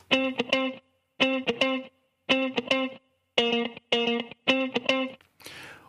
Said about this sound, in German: So, ich habe mir jetzt hier einfach mal ein äh, Raster erstellt und zwar auf 110 BPM, das ist die Geschwindigkeit, und habe mir jetzt da einfach mal so eine Gitarre reingezogen, einfach so eine funky Gitarre, die klingt so.